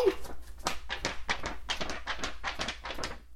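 A sheet of paper being handled at home, with a steady run of crisp, crackling rustles and crinkles across a few seconds, no voices.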